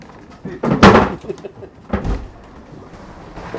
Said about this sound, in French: Il n'y a plus que 5 cm d'eau. Il remet son petit plancher.